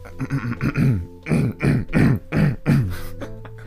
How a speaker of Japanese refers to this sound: めちゃ咳払いして。